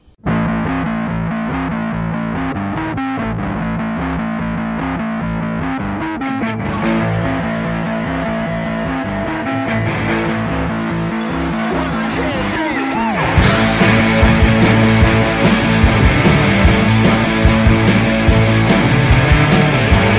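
A loud rock song with distorted guitars and a steady beat plays on its own, then swells midway as crashing cymbals and fuller drums kick in.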